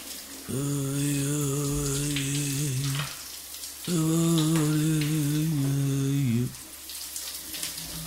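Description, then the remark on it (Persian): A steady, hissing rush of shower water runs throughout, while someone sitting under the shower hums a muffled tune in two long, sustained low tones, with a brief pause between them. “داخل حمام زیر دوش نشسته و آواز گنگی را زمزمه می کرد.”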